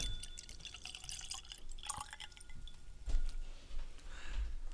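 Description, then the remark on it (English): Faint, scattered drips of whisky land on paper cheat sheets, a few irregular small taps against a quiet background hiss with no one talking. “I accidentally dripped some on my uh, cheat sheets here.”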